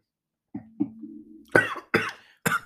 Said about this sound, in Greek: πνίγει και εδώ με το κρασί, δεν μπορεί να πάρει ανάσα. Δεν ξέρω να πίνω.